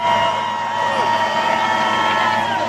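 A crowd of supporters makes a steady, dense roar of overlapping voices and cheers, loud and unbroken for the whole stretch, with no single speaker standing out.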